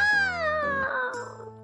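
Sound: cat meowing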